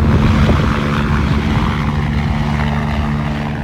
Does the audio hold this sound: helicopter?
yes